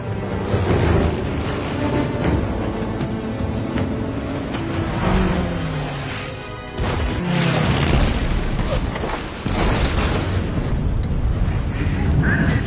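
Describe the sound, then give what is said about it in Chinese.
A loud, relentless barrage of explosions from an aircraft bombing raid, the Japanese attack on Pearl Harbor: deep booms and rumbling blasts pile into a dense roar that eases briefly twice before surging back at full force. “有飞机轰炸，快起来！”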